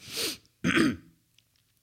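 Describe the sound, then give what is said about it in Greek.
Two quick, harsh coughs in close succession, fairly loud, with no talking around them and only faint noise afterward. “Παρακαλώ, βήξτε ελεύθερα, θα το σβήσουμε μετά.”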